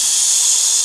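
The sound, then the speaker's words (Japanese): A voice imitates the hiss of a gas leak heard in a home, a steady, breathy hiss lasting just under a second, fairly loud, cutting off abruptly at the end. “そのガス漏れの音っていうのが、プシュ”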